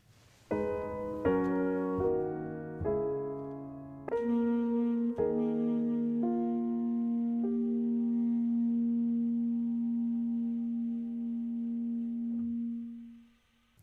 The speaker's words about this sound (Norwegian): Eh, lurer på om eh, vi skal høre litt eh, på musikk igjen. Eh, vi må innom litt musikk her i Globus også, selv om vi liker å mm. prate mye.